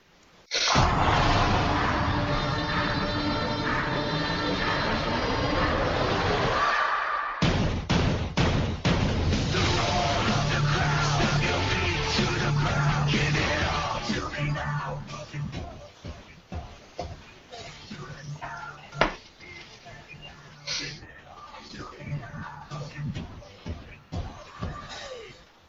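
A loud, heavy intro theme of the NXT developmental wrestling show blasts in with dense, crashing, booming hits, then carries on with a pounding beat before thinning out and growing quieter toward the end.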